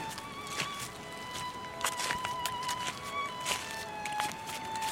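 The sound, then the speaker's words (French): Footsteps crunch through dry fallen autumn leaves on the ground at a steady walking pace, crisp, with a faint high tone ringing softly in the background, during a sunny spell. “On n'entend plus que mes pas sur les feuilles.”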